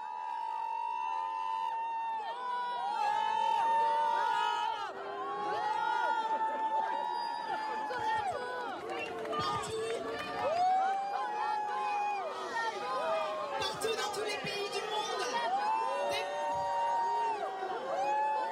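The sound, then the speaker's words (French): A large crowd at a Paris demonstration in support of Iranian women boos and shouts at ecologist MP Sandrine Rousseau, many voices jeering and whooping at once in a loud, sustained clamor with rising and falling calls throughout. “La députée écologiste Sandrine Rousseau s'est fait copieusement huer par la foule.”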